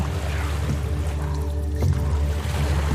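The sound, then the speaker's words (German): Gentle waves wash and rush steadily, a soft continuous water sound with a low, even hum underneath and no voices; the water is on the right. “Mhm, und ihr nehmt alle jetzt, wo er das vor allem auch sagt, so ein leichtes Wellenrauschen”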